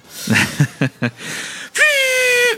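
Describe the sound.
A voice imitates a party blowout horn: a few short breathy puffs, then one steady, buzzy, nasal toot held for nearly a second, fairly loud.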